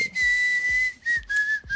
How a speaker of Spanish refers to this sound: Lo bueno es que está en video para que vean que yo no soy la que sé chiflar esto. Yo tampoco vi quién chiflaba. es una este, grabación.